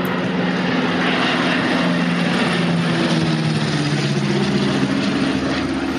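A propeller airplane carrying boxes of flour, vegetables, milk powder and medicine flies in to land at Tempelhof airport, droning steadily and loudly, its low engine hum holding a constant level for several seconds with a slight dip in pitch as it passes, no voices present.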